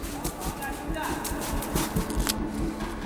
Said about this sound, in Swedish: Jag hör en kniv genom tältduken och förstår att mina vänner skär sig ut.